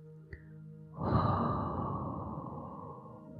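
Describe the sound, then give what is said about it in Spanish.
A single long, forceful exhale of breath, made as a healing breath sound in a breathing exercise, rushes out steady and breathy like blowing out a candle, fading slowly over a few seconds after a faint click. “Respira profundo y produce el sonido como si soplaras una vela.”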